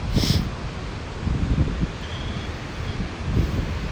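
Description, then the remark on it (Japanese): Strong, strengthening wind buffets the microphone outdoors at about 21°C in a continuous low rumble, swelling in loud gusts around the start, middle and end, with a hissing, rustling wash above it and no voices. “風の音がちょっとボーボーしてるでしょうかねもう風ちょっと強くなってきたので”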